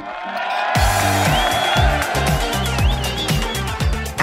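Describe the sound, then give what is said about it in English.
A packed nightclub crowd screams and cheers even louder as a DJ puts the record needle back on at the break after stopping the music, over loud, pounding dance music with a steady thumping kick beat, the roar of voices dense and continuous, with a shrill whistle-like tone rising above. “Then, then I put the needle back on out of the nervousness, and it went back into the break, the spot where the break started again, and they screamed even louder.”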